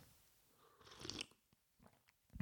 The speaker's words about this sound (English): So, enough of the health benefits. I'm just going to take a sip of my rooibos tea because it's delicious.